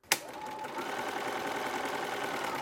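A textile artist's sewing machine, used to stitch appliquéd fabric pieces, starts with a sharp click and then runs steadily, a continuous mechanical whir with a fast rhythmic hum, fairly quiet, with no voices.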